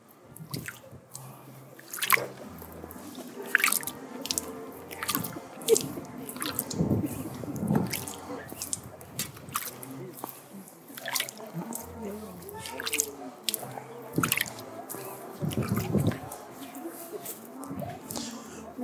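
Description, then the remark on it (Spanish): Holy water being sprinkled onto candles in quick, irregular flicks during a candle blessing before Mass, with sharp splattering drops landing again and again over faint background voices and movement. “Muy bien, voy a rociar sus velas con agua bendita.”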